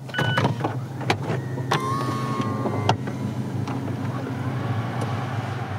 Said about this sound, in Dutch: Het dak kan open